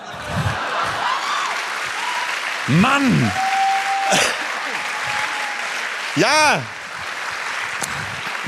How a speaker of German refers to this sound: Der Saal steht Kopf und klatscht.